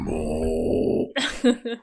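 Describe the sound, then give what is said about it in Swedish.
A voice imitates a giant sandworm: a long, low, rumbling groan held for about a second, then a few rough, breathy roaring bursts, fairly loud. “Tänk på The Dune, den här stora sandmasken som kommer fram.”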